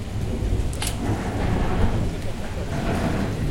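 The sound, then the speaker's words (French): Steady heavy rain of the rainy season hisses throughout while deep thunder rumbles continuously underneath, with a brief sharp crackle near the start. “Voilà notre saison des pluies.”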